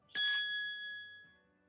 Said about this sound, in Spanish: Se acabó el minuto. la campana. Se acabó el minuto.